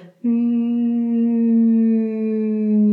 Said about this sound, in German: die Handbewegung mitzunehmen, damit das Summen auch gleichmäßig ist.